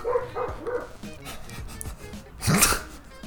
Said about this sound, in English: Stupid dog. Dumb dog. Let me put him inside.